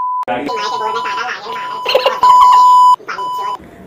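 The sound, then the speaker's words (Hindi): Steady electronic censor beep tones cut over someone's speech to hide swearing, a short one near the start and a longer loud one later, with talking around them. “तो अभी ठीक है तो हम ये बीप कर देना कट कर देना”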